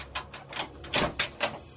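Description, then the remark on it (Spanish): A key rattles and turns in the door lock of a house, making a quick series of small metallic clicks and scrapes, fairly quiet, with no voices. “Metí la llave”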